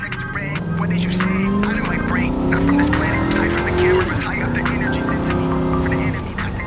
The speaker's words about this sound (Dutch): De muziek in de auto staat hard en de chauffeur scheurt als een bezetene door de stad.